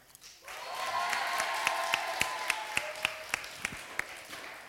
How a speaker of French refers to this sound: Hein Donc, du coup donc du coup, on peut applaudir